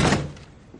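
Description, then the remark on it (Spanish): A boss pushes shut the door of an archive room with one solid, heavy thud that rings briefly and then fades into a low, quiet tail. No voices are heard. “El jefe cierra la puerta.”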